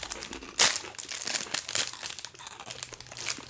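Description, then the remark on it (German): A cookie wrapper crinkles and rustles for several seconds, opening with a sharp crackling burst, then continuing as irregular, papery crackles of varying loudness with no talking. “deswegen ziehe ich mir noch einen Keks rein.”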